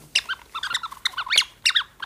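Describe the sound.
A rubber squeak toy squeezed in quick, irregular bursts to mimic a bird's chirping: a rapid string of high, bright squeaks, fairly loud, with no one talking.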